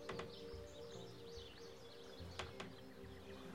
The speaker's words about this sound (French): Soudain, des oiseaux se mettent à chanter.